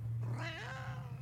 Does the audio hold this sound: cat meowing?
yes